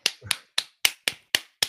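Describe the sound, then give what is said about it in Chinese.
Seven crisp hand claps in a steady, fairly quick rhythm, each a sharp bright smack that fades fast. No voices, just the clapping on its own. “本周六是中华民国自从有了公民投票法之后的第三次全国性公投，掌声鼓励。”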